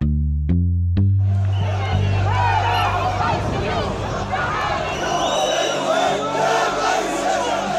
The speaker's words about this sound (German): So klang es am vergangenen Wochenende in Tunis, der Hauptstadt Tunesiens. Tausende gingen auf die Straße, um gegen den autoritären Kurs von Präsident Kais Said zu protestieren.